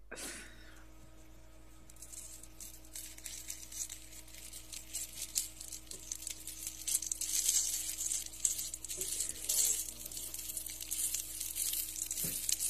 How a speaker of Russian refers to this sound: Жарят. На чем? Какой-то кусочек на, на, на процессоре. Да, вот а, правильно, да. Здесь в центре это процессор. Э, в качестве лопатки выступает плашка оперативной памяти какого-то.